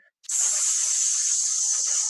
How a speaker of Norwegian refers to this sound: og puste helt ut, og så puste rolig inn gjennom nesa, så vil det angstanfallet opphøre etter relativt kort tid.